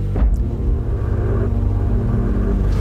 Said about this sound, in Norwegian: Ja. Motoren i gang, så er det bare til å kjøre ned.